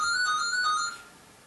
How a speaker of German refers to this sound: Was ist jetzt? Das Telefon? Telefon schellt.